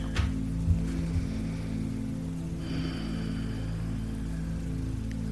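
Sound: cat purring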